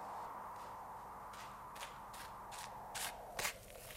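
Quick, evenly spaced footsteps of a nun running, starting faint and growing louder as she approaches, with no voices over a steady low background hum.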